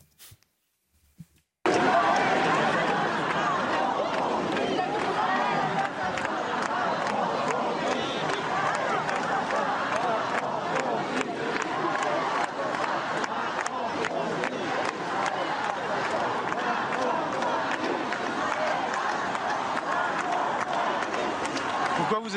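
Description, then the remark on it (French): A large outdoor crowd of several thousand people at a street rally with pro-Palestinian and anti-Israel chants roars continuously, many voices shouting and chanting together in a dense wall of noise, with scattered claps and cries cutting through, loud after a brief quiet start. “Plusieurs milliers de personnes se sont rassemblées.”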